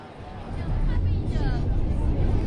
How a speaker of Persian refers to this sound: اولش صدای محیط رو میشنوی صدای همهمه مردم تو مترو